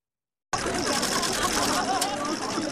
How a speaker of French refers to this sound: Les appareils photo crépitent pour la première apparition en couple de Kate et William à Sandringham dans le Norfolk depuis le décès de la reine Elisabeth II.